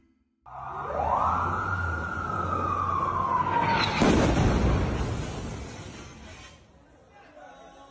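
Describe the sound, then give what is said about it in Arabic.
A long descending whistle cuts through heavy rumbling noise, then a loud explosion bursts out and slowly rolls away into fading background din: Israeli shelling at night on 23 October around Al-Quds Hospital in western Gaza City. “هذا صوت قصف إسرائيلي في ليلة 23 أكتوبر لمحيط مستشفى القدس في غرب مدينة غزة”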